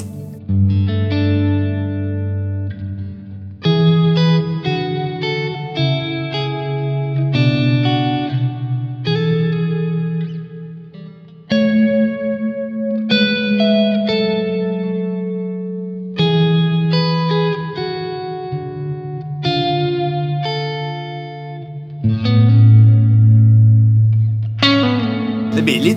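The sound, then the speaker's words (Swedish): Electric guitar chords ring out through a lush reverb pedal, played in short phrases with brief pauses. The echoing tail sometimes cuts off abruptly because the pedal's trails setting is switched off. Fairly loud, and nobody speaks. “Exakt, och om du då slår av trails så får ni höra att ja. då kommer reverbet försvinna.”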